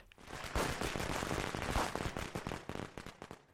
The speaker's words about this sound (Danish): Og de her eksplosioner, de sker altså rigtig, rigtig hurtigt omkring 4.000 små eksplosioner i minuttet. Vildt. Så svarer det jo til 66 eksplosioner hvert sekund.